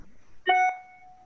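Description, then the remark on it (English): A single bright electronic chime from a phone or computer, a short notification tone with a clear ringing pitch that fades away over about a second. “Sorry, my phone, computer is going crazy.”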